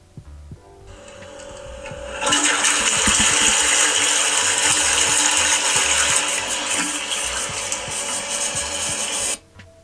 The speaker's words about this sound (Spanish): Eh, suena eh, una cadena de un water